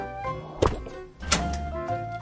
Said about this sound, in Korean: 그래서 얼른 빛의 속도로 달려가 베란다 문을 닫고 문을 잠갔습니다.